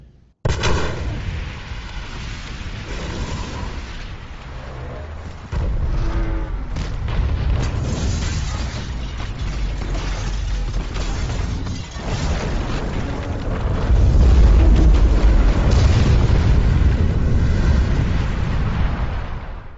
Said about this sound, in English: just put a bunch of explosions in, I guess, glass breaking, you know, children crying. Okay, explosions.